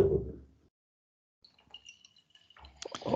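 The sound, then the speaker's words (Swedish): Two kinds of beer are poured into glasses for tasting: a quiet gurgle with faint high ringing and light clinks, building to a fuller splashing at the end. “så nu häller vi alltså upp här.”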